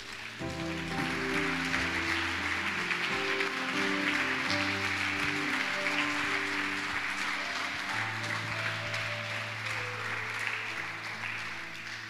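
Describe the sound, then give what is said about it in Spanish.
An audience applauds the Lord steadily for about twelve seconds during a sermon, a dense wash of clapping hands filling the room while sustained organ or keyboard chords play underneath. “Alguien debe darle un aplauso al Señor por eso.”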